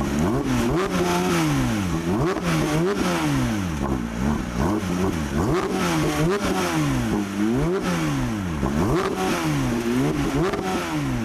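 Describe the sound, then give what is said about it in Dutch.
A Porsche GT3 engine revs hard again and again, its pitch sweeping up and down in rapid waves, loud and continuous for about eleven seconds with no voices. “Ik persoonlijk zou gaan eh, voor twee modellen, als je het goed vindt. Ja? Zou zijn de GT3.”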